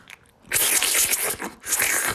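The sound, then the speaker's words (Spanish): A bat drinking water: two spells of rapid, wet crackling and clicking, bright and fairly loud, separated by a brief pause, with no one talking. “es un pinche murciélago, este güey tomando agua.”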